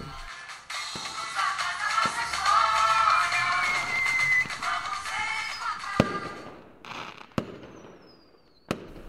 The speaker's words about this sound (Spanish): Parece ser que la tradición de los fuegos artificiales en la noche de fin de año se originó en los tiempos antiguos, cuando se usaba el ruido y el fuego para espantar a los espíritus malos y traer buena suerte.